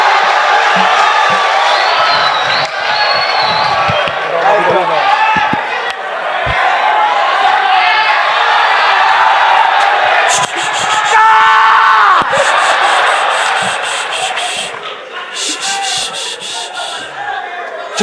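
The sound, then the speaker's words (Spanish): A dense, loud crowd screams and cheers nonstop as the performer Chupetín comes on, many overlapping high voices shrieking, with occasional sharper individual yells rising above the roar. “hermano, es, una estrella, hermano. Ni a mí me ha gritado así, concha su madre, ni a mí.”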